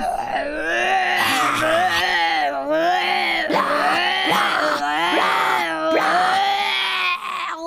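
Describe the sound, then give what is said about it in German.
Hippopotamuses opening their mouths wide and grunting: a loud, continuous run of drawn-out groaning bellows, each swooping up and down in pitch, about five or six calls in quick succession with no talking. “Nilpferde rissen das Maul auf und grunzten.”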